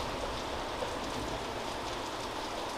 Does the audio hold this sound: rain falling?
yes